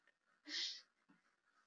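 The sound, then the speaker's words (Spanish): A dog lets out a single sharp, breathy huff through its nose, short, followed by a faint softer breath in otherwise quiet surroundings. “También acá mi perro, síganlo en su Instagram y Facebook.”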